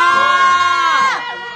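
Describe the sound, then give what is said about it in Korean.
A crowd outside the KBS open studio, on a cold day, cheers and screams together in a sustained, high-pitched roar of many voices, loud and continuous throughout, tapering slightly toward the end. “어, 거의 군중 소리가 들리네요.”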